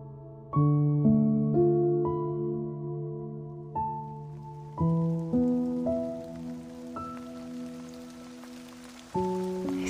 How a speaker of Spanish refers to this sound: El sonido de la lluvia me brinda mucha paz y bienestar. Me encanta la lluvia. J'adore la pluie.